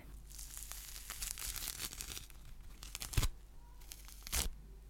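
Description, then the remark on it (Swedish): Peeling of a clementine: a run of soft, fibrous tearing and crinkling, with two sharper rips standing out near the end. No voices. “Clementinljud när man skalar det, det är någonting jag gillar mycket.”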